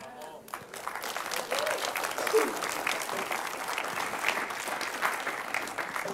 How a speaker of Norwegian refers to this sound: Vi er skikkelig applaus